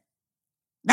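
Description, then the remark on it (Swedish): After near silence, a person's voice lets out one short, loud dog-like yelp or bark at the very end, imitating how a dog named Fonzie sounds. Fonzie does not bark much. “Han, han skäller inte så mycket, men han låter så här...”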